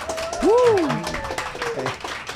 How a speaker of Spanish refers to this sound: Ahora sí hubo buen aplauso, ¿eh? Luego digo aplausos y se escucha un grillito así.